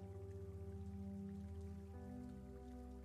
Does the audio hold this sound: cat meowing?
no